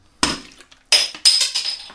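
Glass bottles of Kronbacher Fassbrause clink together in a toast, three bright knocks with ringing tones, the first a bit apart and the last two close together, loud with no talking.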